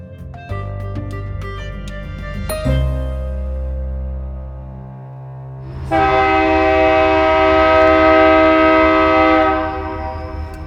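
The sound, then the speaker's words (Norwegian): A freight train rumbles past in Pittsburgh, USA, its deep, steady roar carrying a loud, sustained horn blast that swells in the second half and then fades, with no one speaking. “Lyden av gammel storhet kan fortsatt høres i Pittsburgh. Men godstogene fraktet mer da dette var selve stålbyen i USA.”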